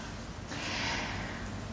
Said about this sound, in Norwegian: Eh, og nå trekker jeg jo pusten, for jeg tenker at dette var kanskje litt voldsomt.